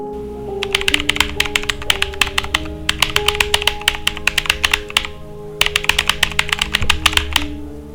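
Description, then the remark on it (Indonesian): Rapid typing on a computer keyboard in a computer room, dense bursts of crisp key clicks with brief pauses between flurries, fairly loud, over a low steady background hum. “Suara ketikan keyboard terdengar nyaring hingga ke tangga ketika aku tengah beranjak ke atas.”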